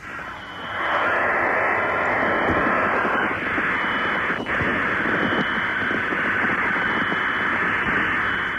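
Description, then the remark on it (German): A dense, steady electronic screech of computer program data tones played from a cassette Datasette over a telephone line, loud and continuous like raw tape noise, with a faint ringing hum underneath, heard alone for several seconds, slightly muffled. “ich habe hier gerade eine Ersatzdroge gefunden, C4-Programm. Ich habe ja gerade die Datasette.”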